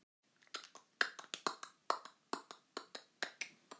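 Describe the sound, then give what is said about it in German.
Horse hooves clatter in a quick, steady series of sharp clops, about a dozen crisp hits in a row with no voices. “Doch dann hörte sie auf einmal ein Hufgetrappel.”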